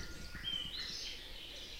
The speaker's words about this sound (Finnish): Ja nyt kun istun pihalla puutarhatuolissa niin vain muutaman metrin päässä laulaa haarapääsky. Sekin on hiljattain saapunut tähän pihalle. Minulla on räystään alapuolella pääskylauta ja sinne pääsky tekee pesänsä.